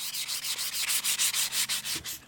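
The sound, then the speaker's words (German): Steady back-and-forth hand sanding of an old 17th-century carved figure of a Dominican being restored, about a dozen quick rhythmic rasping strokes over the surface, fairly loud with no talking. “Ich bin hier an einer Figur am Schleifen, eine alte vom 17. Jahrhundert, die wir wieder neu machen müssen.”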